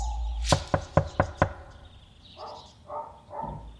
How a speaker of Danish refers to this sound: Han samler et ret stort hold. Hvad var vi? Tre kolleger fra drabsafdelingen og to folk fra Naturstyrelsen. Og så havde vi en fotograf med fra vores tekniske afdeling. Det er seks mand foran døren, da de banker på hos Lemvi i Hvidbæk